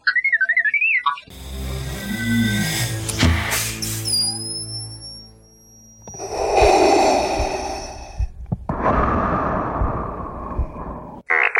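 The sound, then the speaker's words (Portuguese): Mechanical clanks and a rising electronic whine as the mask and helmet close over Darth Vader's face in the film scene of his birth give way to a loud respirator breath through the mask: a long hissing inhale, then a rasping exhale, his first breath, with no one speaking. “Quando vem descendo a máscara assim na cara dele, fecha a máscara, entra o capacete e vem a primeira respiração.”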